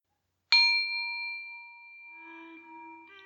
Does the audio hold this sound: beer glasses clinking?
no